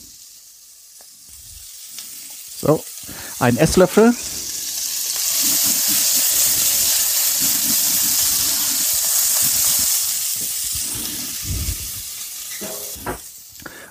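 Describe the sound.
A brief spoken phrase and a few clinks, then a loud, steady sizzle of onions frying in a pan in duck fat with a small splash of added oil, with faint stirring scrapes underneath.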